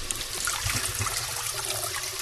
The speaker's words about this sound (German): Dann können wir in der Zeit nämlich jetzt schon mal die Kartoffeln habe ich geschält eben waschen.